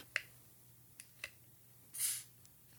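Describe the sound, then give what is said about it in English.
A bottle cap is pried off with a bottle opener: a few small, sharp clicks, then a brief soft fizzing hiss as it releases. Quiet, with no talking. “I just popped it with a War Starts at Midnight bottle opener”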